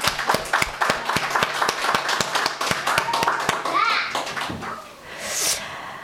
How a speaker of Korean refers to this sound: 오늘 부활절에 특성을 해주신 우리 초록 중창단에게 우리 다 같이 어, 감사의 박수를 전했으면 좋겠습니다.